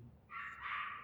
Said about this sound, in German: man hört Hunde bellen